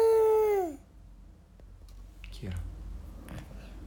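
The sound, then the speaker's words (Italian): A person voices a loud, high fox-like cry that wavers and slides downward for under a second, followed by quiet rustling and a faint breathy sound. “Forse Fursino un'altra volpe che ha fatto male.”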